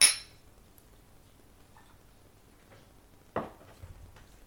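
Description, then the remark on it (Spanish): Shot glasses clink together with a bright, ringing tap, followed a few seconds later by a second, duller glassy knock, as shots of vodka are drunk. Between the two sounds there is only quiet, with no voices. “mira, vamos a hacer un chupito.”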